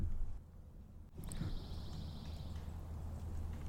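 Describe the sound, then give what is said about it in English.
A pine warbler sings a single steady, even-pitched trill lasting about a second, among pine trees around the Cypress Swamp at First Landing, over a low outdoor rumble and background noise. “Love the sounds of those pine warblers singing.”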